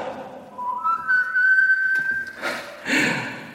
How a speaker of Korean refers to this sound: 이놈의 마귀 할멈이 조금만 짜증이 나고 화가 나면 나를 쫙 째린단 말이야? 그럼 난 자동으로 휘파람을 냅다!